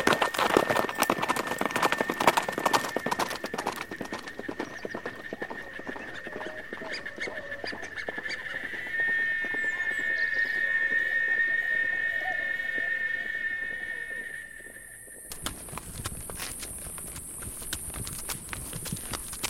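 horse hooves trotting

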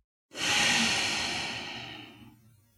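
exhaling through the nose

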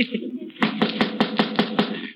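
knocking on a door

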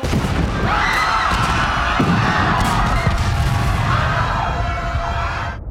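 big explosion

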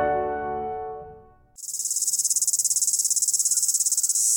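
cicada chirping

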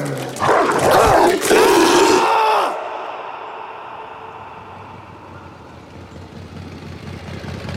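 dog growling and barking

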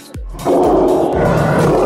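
young lion roaring

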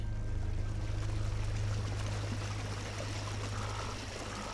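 river water flowing

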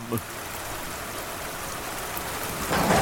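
thunderstorm with heavy rain

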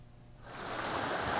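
river water flowing

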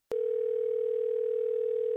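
phone dial tone

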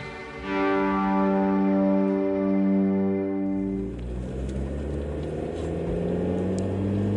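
car driving

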